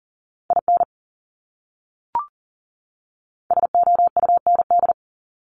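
Rapid Morse code beeps at 40 words per minute and a steady mid pitch spell out common English words: a short burst of dits and dahs, a brief click, then a longer fast run. No voices.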